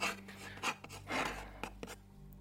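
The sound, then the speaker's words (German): A pen scratches across a small unfolded slip of paper in several quick, uneven strokes, fairly quiet, with a faint low hum underneath and no voices. “Ein kleiner Zettel, ein, ein, ein Papier, entfaltet sich und Stift, äh, und ein Stift.”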